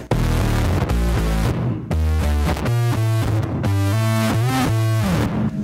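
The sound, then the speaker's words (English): A thick, distorted bass guitar riff played through a bass synth effect, with a synth-like buzz, plays loud, its low notes sustained and shifting in a repeating pattern, with brief drops between phrases. “I use the bass synth also.”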